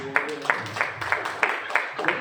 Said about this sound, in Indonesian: Tepuk tangan saudara ya